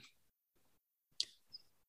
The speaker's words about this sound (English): Okay, so I'm typing into Google when did people start slicing bread?